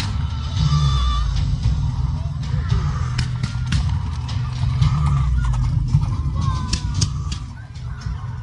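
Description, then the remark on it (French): Horses clip-clop in a steady run of hoof strikes over a constant low rumble, with a few high whinnying calls rising now and then and indistinct voices mixed in. “Des chevaux.”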